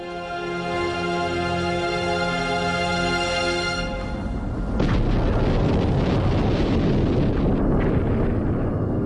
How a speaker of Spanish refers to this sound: En julio el R7 despega de la plataforma.